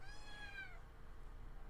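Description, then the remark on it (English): A tuxedo kitten called Fancy Pants gives one short, high-pitched meow that slides downward in pitch and fades out, followed by a low, steady background rumble with no talking. “He's a tuxedo kitty, so we've been calling him Fancy Pants.”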